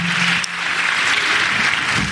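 A live audience applauds a warm-up stand-up act, dense and steady clapping at a fairly loud, even level for a couple of seconds, with no one speaking over it.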